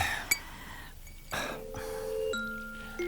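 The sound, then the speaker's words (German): Drinking glasses clink as they are set down while drinks are served, a sharp tap followed by a few bright ringing tones that hang and overlap, fairly quiet, with no talking. “Für jeden von euch ein Glas.”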